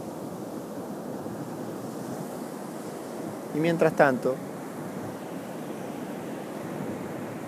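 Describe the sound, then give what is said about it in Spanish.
A steady wash of ocean surf fills the background, a soft continuous roar that never lets up. Partway through, a calm voice guiding a breathing meditation speaks briefly over it. “Puedes escuchar de fondo el océano.”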